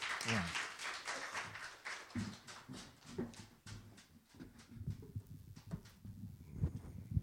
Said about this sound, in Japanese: それでは拍手を持ってお迎えいたしましょう。